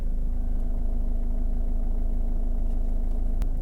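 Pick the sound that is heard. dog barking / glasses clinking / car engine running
car engine running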